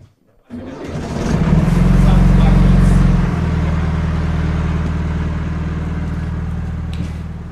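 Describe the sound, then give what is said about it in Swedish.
A motorboat engine starts up before setting out on a boat trip, revs with a loud low rumble for a few seconds, then settles into a steady, throbbing idle. “Den båttur vi nu ger oss ut på brukar Tove och hennes livskamrat Tuulikki Pietilä göra många gånger varje sommar.”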